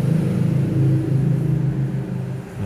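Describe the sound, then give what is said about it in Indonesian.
A small step-through motorbike engine drones loudly and steadily, its low buzzing note wavering slightly as it idles and revs, with no voices over it. “saya bukan anak motor jadi nggak tahu ya udahlah motor juga motor bebek biasa berisik”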